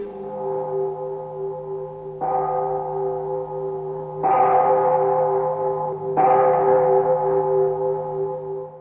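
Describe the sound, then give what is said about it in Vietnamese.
A deep bell rings at a Buddhist temple at the foot of a mountain in the late afternoon, with long, humming resonance. It is struck again roughly every two seconds, so each new strike swells over the lingering tone of the last. There is no talking. “Tại đây, Ngài viếng thăm một ngôi chùa, vừa bước vào điện Phật, có một vị sư già tiến ra nghiêm tiếp phái đoàn, chợt nghe vang lên một hồi chuông.”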